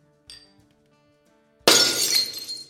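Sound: glasses clinking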